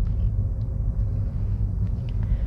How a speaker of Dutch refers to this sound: Ik zit eh, in de auto.